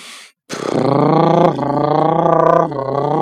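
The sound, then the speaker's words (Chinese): A voice imitates a motorcycle starting off by blowing air while voicing a 'du' sound: a brief breathy puff, then a loud buzzing, harmonic drone that climbs in pitch, surging twice as if shifting gears, reaching about third gear, with no speech. “然后这个，如果是你能很好的控制这这这个发声以后呢，你可以再嗯加上一点这个正常的摩托车声音啊，像摩托车起步的声音，”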